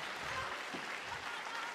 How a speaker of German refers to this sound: Einen großen Applaus für die ganzen Fischfänger und die ganzen Fischer hier. Richtig schön.